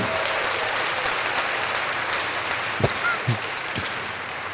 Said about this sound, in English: wow, that came out a little softer than I expected. We all deserve the applause. I'm used to the applause, so.